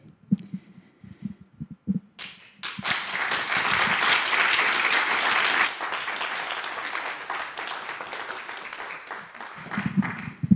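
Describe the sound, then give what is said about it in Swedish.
An audience bursts into sustained, dense applause that swells quickly and carries on for several seconds, loud, after a few low murmured voices at the start. “Jag tycker det var en extra applåd på den va?”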